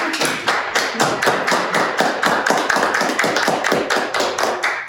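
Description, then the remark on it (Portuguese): Steady, brisk hand clapping, about four sharp claps a second for several seconds, with no voices. “Eu penso assim que ela só, o que que ela merece, ó. Cara, só de palmas.”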